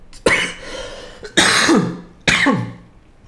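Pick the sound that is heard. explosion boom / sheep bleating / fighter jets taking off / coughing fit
coughing fit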